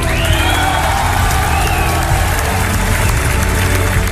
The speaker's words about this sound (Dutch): Nou, groot applaus dus voor Lionel Messi.